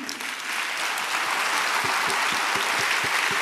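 An audience breaks into steady applause, a dense wash of clapping that swells in the first half second and holds at full strength, with a few sharper claps punctuating the roar near the end.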